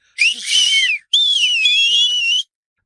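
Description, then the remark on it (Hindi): A chauffeur gives a loud, shrill two-finger whistle with fingers in his mouth, two long sustained blasts, the first slightly wavering, separated by a brief gap, piercing with no talking. “तभी एक सीटी बजी थानेदार की हौसला अफजाई के लिए मुंह में दो उंगलियां डाल शोफर ने ही बजाई थी”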